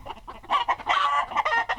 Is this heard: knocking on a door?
no